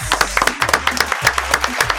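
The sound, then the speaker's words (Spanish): A small group claps their hands in a quick, steady burst of applause, fairly loud, lasting a couple of seconds with a low hum underneath, applauding a programme's new sponsor, Gélido Bebidas, a maker of alcoholic drinks. “Vamos a aplaudir a ellos que tienen las mejores bebidas alcohólicas.”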